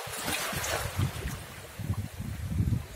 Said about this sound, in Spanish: como veis hace vientecillo, y aunque el sol calienta, el viento no ayuda en nada, porque es bastante frío.